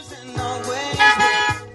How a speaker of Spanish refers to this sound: Diablo, tres bocinas, tres gatos.